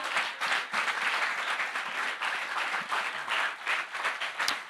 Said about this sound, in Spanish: Si le va a dar un aplauso.